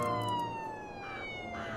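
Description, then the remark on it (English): Several police sirens wail at once, their overlapping tones sliding slowly in pitch. The sound is loud and steady for the whole moment, with a faint rumble of traffic beneath and no voices. “A chorus of sirens filled the air, and I turned toward the terrified woman on the table.”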